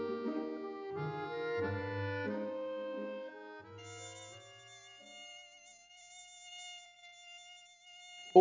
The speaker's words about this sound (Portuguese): Tem mosquito. Por que eu, mosquito? Por que eu e você? Você é o inseto mais indiscreto da criação, tocando fino seu violino na escuridão.